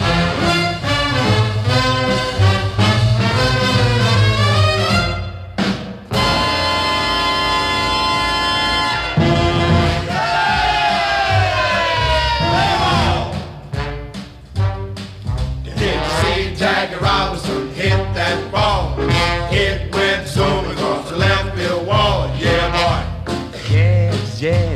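A lively song plays loud and steady, with a voice singing over a full band of rhythmic accompaniment and bright horn-like tones, with a brief pause near the start.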